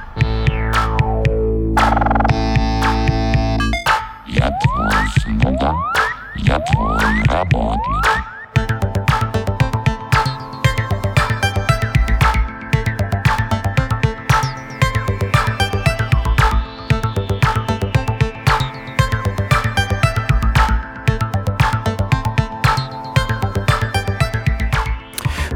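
An electronic music track with buzzing synthesizer tones and a steady pulsing beat, opening with sweeping, pitch-bending sounds before settling into a continuous loud groove with no voices.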